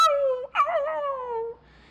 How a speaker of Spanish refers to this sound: efectivamente, mira, eso es un, es un chillido de un perro. Ahí está en la esquina, ¿lo estás viendo? Es un perrito, ahí está.